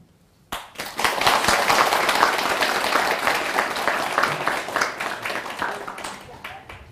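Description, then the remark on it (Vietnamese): An audience bursts into applause to make a vow, a dense, steady crackle of many hands clapping that starts abruptly and holds strong before gradually thinning toward the end. “các anh chị thấy à, những bài mới này là làm được là xin dân cao trào pháo tay để phát nguyện”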